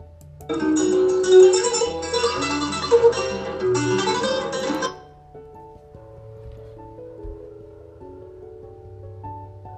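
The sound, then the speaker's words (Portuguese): An acoustic guitar is strummed steadily and fairly loudly for a few seconds, then stops, leaving softer notes ringing and fading on their own. “Esse é o violão.”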